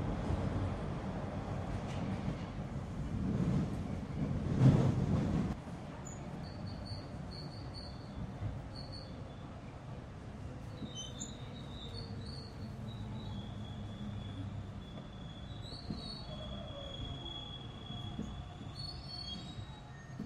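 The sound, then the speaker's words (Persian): A metro train heading for Sadeghiyeh station rumbles along, loudest in the first few seconds, then settles into a steady roar while thin, high-pitched wheel squeals whine on and off above it. “ایستگاه بعد صادقیه”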